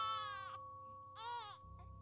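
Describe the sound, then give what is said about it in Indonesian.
A baby's crying rings out in two loud, wavering bursts with a short pause between them, ending in a brief softer whimper over a low steady hum. “Tepat pada saat itu, tangisan itu pun terdengar lagi. Jelas dan sangat keras.”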